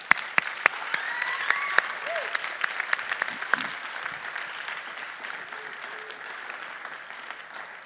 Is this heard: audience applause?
yes